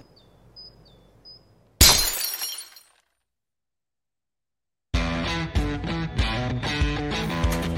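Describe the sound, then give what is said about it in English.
In a Stateside Vodka ad, a glass bottle is cut in half with one sudden, sharp crack and a bright, brittle ring that fades within a second. Silence follows, then music begins. “You're telling me that bottle is cut in half?”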